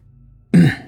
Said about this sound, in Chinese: 掩饰性的咳嗽了一下。